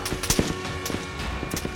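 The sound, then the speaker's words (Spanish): An exchange of gunfire between soldiers and a fugitive: several sharp, irregular cracks, some in quick pairs, ring out over a steady low background rumble, with no talking. “Disparos se escuchan por varios minutos entre ambos flancos hasta que por fin llega el fatídico silencio.”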